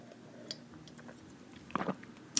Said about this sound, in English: But yes, put your glasses up or whatever you have up. Take a sip